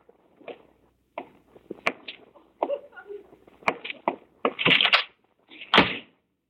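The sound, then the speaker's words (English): A door is handled: rattling and scraping of the latch and hinges, punctuated by a few sharp clicks and a final firm shut, with no voices. “I'm going to walk over to that window and look out a moment later, I'm going to turn around, and you will have gone quietly out of the door.”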